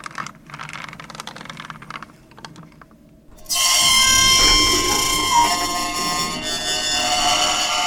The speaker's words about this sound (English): It's an old elevator. It makes strange noises sometimes.